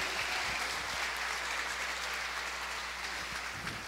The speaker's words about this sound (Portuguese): Você pode aplaudir o nome de Jesus por isso?